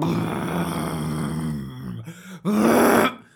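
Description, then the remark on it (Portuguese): A voice imitates a loud motorcycle appearing on the street, with a low, rumbling growl that sustains, dips briefly, then surges into a louder revving burst before cutting off. “Agora, queria avançar já aqui com um tema interessante eh, e completamente irrelevante, mas interessante para mim, que é as pessoas que andam de moto, sabem quando vocês estão na rua e aparece uma moto boeda alto, você...”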